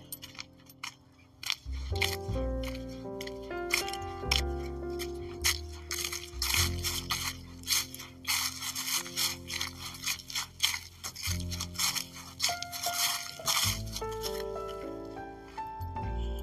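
Dry fallen leaves rustle and crunch as a German Shepherd dog nuzzles through them in the woods in fall, a steady, irregular crackling scrape that swells and fades over several seconds with no talking.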